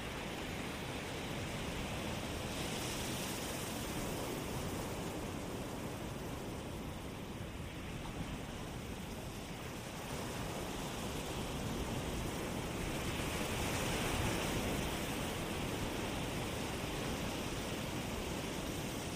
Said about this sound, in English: watching the water come into the shore and then recede. And then it comes in again. and recedes.